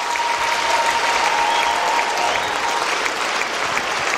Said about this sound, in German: Können wir den Menschen einen riesigen Applaus geben, die sich gerade für Jesus entschieden haben? Come on, einen riesigen Applaus geben. Come on.